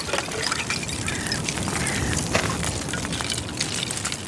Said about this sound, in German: Die kleinen Wellen, die meine Schwimmzüge machen, bringen das Eis zum Klingen. Es ist nah genug, dass ich es hören kann, ohne dass ich zu weit vom Ufer wegschwimme das klirrt und klingelt im Ohr.